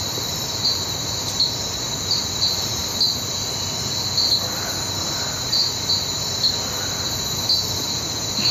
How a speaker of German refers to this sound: Sind das Frösche? Ja. Das ist brr, brr. Ja, ASMR pur, oder?